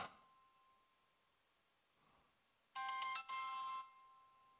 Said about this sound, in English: Someone's trying to call me on the phone while I'm doing a show here.